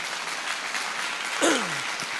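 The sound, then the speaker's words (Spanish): An audience claps steadily in the morning, giving applause to the Lord: a dense, even wash of many hands throughout, with a brief whoop or cheer rising out of the applause near the middle before the clapping continues. “Si lo crees, dale un fuerte aplauso al Señor en esta mañana.”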